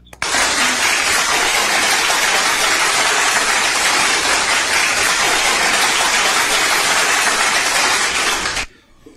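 Loud, sustained applause fills about eight seconds, a dense, steady roar of many hands clapping with no voices, before cutting off abruptly.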